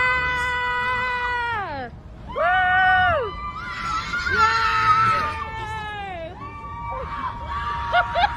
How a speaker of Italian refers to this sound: talmente felice della vittoria di Biden su Trump che è uscita di casa in pigiama quando è stato eh, ufficialmente eletto il presidente, urlando e ballando sul marciapiede come una pazza. E ovviamente abbiamo il video di questo evento.